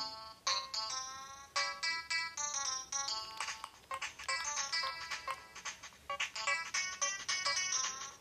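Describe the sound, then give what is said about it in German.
A bright, chiming electronic melody plays on its own, with quick repeated tones in a bouncy rhythm, like a tinny music-box tune from a video game record player. “Können wir halt eine Platte hinzufügen und das Kaka-Liebeslied. Klingt so.”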